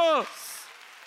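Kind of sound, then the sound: crowd, audience applauding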